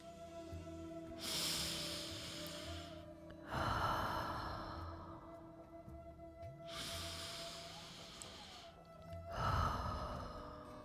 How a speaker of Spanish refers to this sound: Ahora vamos a hacer tres respiraciones largas y profundas. Quiero que notes tu respiración, dónde se refleja.